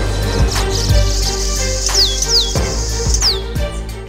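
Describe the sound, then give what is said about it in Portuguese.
Several quick, high swallow calls ring out as short downward-sweeping chirps over a steady bed of background noise and low hum, with no one speaking. “A andorinha.”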